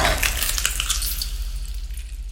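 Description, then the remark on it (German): Steady crackling sizzle of meat cooking on a spit over a fire, dense popping and hissing, with a low rumble beneath, easing slightly toward the end. No voices. “Als er seine Zähne in das brutzelnde Fleisch schlägt und einen Bissen herausreißt”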